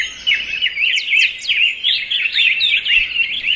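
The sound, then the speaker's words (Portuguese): A dense chorus of birds from the Atlantic Forest, many high chirps and trills overlapping continuously, with rapid descending whistles weaving through a steady bright warble. No voices. “Afinal de contas, não dá para falar de Mata Atlântica com um som apenas sendo que a diversidade é o que existe de mais especial nesse bioma.”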